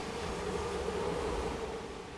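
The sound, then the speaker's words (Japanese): A steady, broad wash of rushing noise with a low rumble underneath as a very large vehicle swishes past on a road while it is raining, fading slightly toward the end. No one speaks. “雨降ってるすごい大きい車通りましたね”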